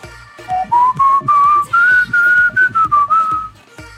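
A person whistles a short melodic tune, the clear pitched notes gliding and stepping over a few seconds, with soft low thumps of a background beat beneath.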